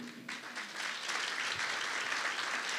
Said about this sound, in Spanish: Diga, Sael, un aplauso para Sael, por favor.